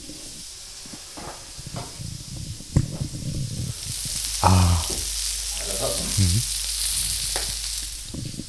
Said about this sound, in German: Special-Folge und wie ihr hören könnt, wird ordentlich gegrillt. Man, man es, oder? Der Grill hat diesmal kein eigenes Mikro. Ja, ich, ich halte meins mal kurz daran. Einmal fürs Feeling.